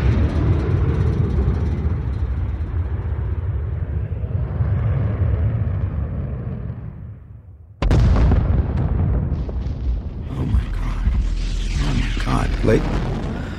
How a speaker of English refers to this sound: I watched what appeared to be an Air Force fighter jet just crashing and exploding into Jericho Mountain.